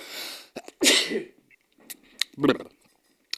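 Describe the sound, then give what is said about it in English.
A loud sneeze bursts out after a sharp intake of breath, followed by a few brief, quiet vocal sounds and clicks. “um, bless you, my child.”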